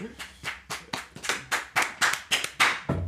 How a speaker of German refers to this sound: Dann gibt einmal Applaus, Junge.